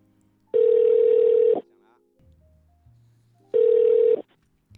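Two loud, steady ringback tones sound on an outgoing phone call, each about a second long and separated by a pause, with a faint low murmur in between.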